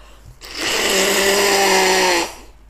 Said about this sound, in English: I feel fucking nose bubble bubbling I can't breathe through my nose right now. I need to blow my nose.